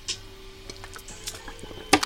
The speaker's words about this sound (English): Ah, sorry, I'm hydrating because I have to remember to drink water, and I hope that that reminded you to drink water. Okay, so I will be taking water breaks.